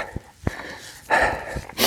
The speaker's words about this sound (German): Ich schnaufe, es geht bergauf und ich gehe übrigens. Lass mich vom Hund hochziehen.